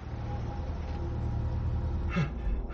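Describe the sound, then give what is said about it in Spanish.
A car engine rumbles steadily at a low pitch as the vehicle drives into a snow-covered clearing, with a short brighter rustling burst near the end; no one speaks. “Un coche entra en una esplanada.”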